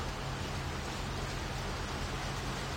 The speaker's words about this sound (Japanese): いや雨降ってきた